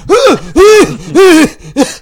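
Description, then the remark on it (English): A voice imitates friends choking and coughing from wildfire smoke in the air: four loud, strained, groaning gasps, the last one shorter, with brief pauses between them. “just choking to death.”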